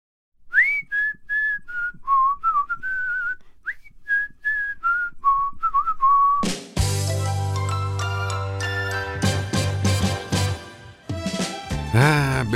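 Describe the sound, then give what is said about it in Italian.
A clear whistled tune plays a bright, stepwise TV theme melody for about six seconds, then a full instrumental arrangement with bass and bright chimes bursts in and carries the tune on loudly. “Beata Gioventù, avete riconosciuto questa sigla?”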